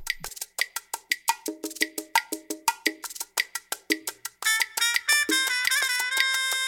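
A salsa song opens with a steady, bright cowbell beat and percussion. After a few seconds a loud, full band of brass and other instruments joins in. No one speaks.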